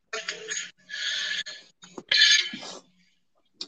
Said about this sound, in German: Ja, da habe ich auch gehustet.